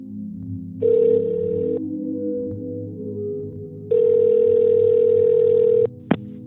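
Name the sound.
telephone ringing tone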